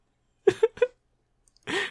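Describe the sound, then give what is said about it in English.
A dog gives three quick, sharp yaps in rapid succession, then one longer, rougher bark after a short pause. Fairly clear, with no talking. “Shut up. Bark.”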